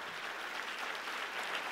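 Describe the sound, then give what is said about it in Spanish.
An audience applauds steadily, a dense continuous wash of many hands clapping at an even level with no voices standing out. “Si ese es el aplauso, dáselo mejor al Padre, al Hijo”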